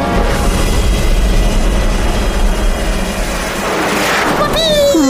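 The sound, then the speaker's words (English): A rocket shoots off a roof and into space: a loud, steady roaring whoosh, a dense rumble lasting about five seconds, with a few rising whistling tones near the end. “Whoosh! The rocket shot off the roof and into space.”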